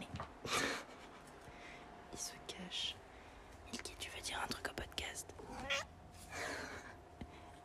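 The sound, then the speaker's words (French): A cat meows and chirps several times in short, scattered bursts over the steady hiss of water running from a tap turned on for the cat to drink, with a faint whispery voice in places. “Faut que j'allume le robinet à mon bourgeois de chat.”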